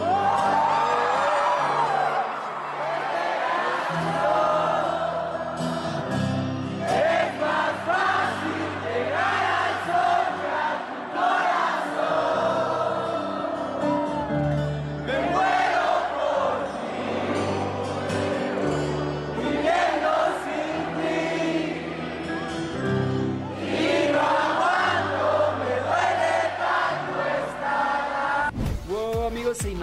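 A huge stadium crowd sings a song together, thousands of voices rising and falling in a loud, continuous melodic roar with shouts and whoops mixed in, ending abruptly.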